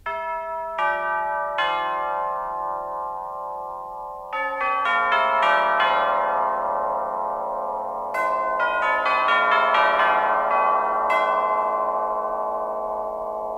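An orchestra's percussionist strikes tubular bells, metal tubes mounted on a stand, with a hard plastic hammer in a slow melodic sequence of about a dozen bright, metallic strikes, each leaving a long shimmering decay that overlaps the next, clear with no talking.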